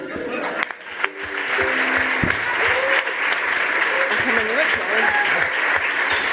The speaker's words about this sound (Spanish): Es la primera, es la primera vez que un aplauso es mucho mejor que la interpretación.